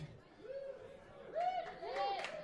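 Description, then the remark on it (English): Crowd chatter fills a busy bar, several voices overlapping into an indistinct, continuous babble with a few louder voices rising above the general hum. “We are live at the Surly Goats. Motherfuckers be loud.”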